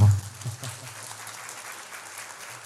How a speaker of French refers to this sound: Il faut l'applaudir, sa maman.